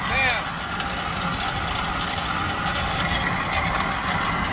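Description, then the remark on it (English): A car driving on only three wheels speeds along a highway with a loud, steady roar of engine and road noise that holds unbroken throughout, opening with a brief high-pitched squeal. “Bruh, she was flying down the highway three with with three wheels.”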